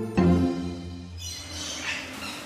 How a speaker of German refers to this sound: wir hören im Hintergrund jetzt mal auf jeden Fall die Loris und auch die Amazonen